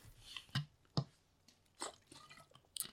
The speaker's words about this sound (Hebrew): שתיקה מביכה. לא, אני פשוט שותה מים.